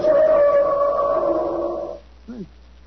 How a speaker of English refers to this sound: The instrument sounds exactly like, like an elephant trumpeting.